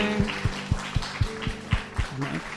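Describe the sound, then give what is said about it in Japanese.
A church audience claps for Jesus after a prayer, in a steady, even rhythm of about four beats per second over a sustained low hum, with a brief voice rising near the end. “イエス様に大きな拍手いただきましょう。”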